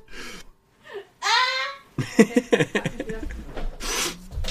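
Headphones clatter onto the floor in a quick burst of knocks and rattles, after a few breathy gasps and moaning vocal sounds.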